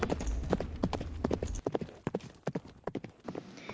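Horse hooves clip-clop in a quick, uneven trotting rhythm, sharp, with a low rumble under the first half and no voices.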